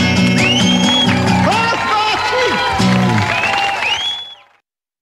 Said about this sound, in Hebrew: מחיאות הכפיים לשלמה ברבא